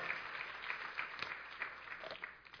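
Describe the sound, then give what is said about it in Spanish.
An audience gives a strong round of applause to God, with dense, steady clapping from many hands forming a continuous rustling wash, moderately loud throughout with scattered sharper claps standing out. “Démosle un fuerte aplauso a Dios si así quiere.”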